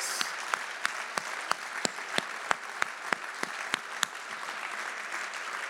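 Applause for the women on International Women's Day, with a steady, even beat: a dozen or so sharp claps, evenly spaced, ring out over a continuous hiss of clapping, moderately loud, with no voices.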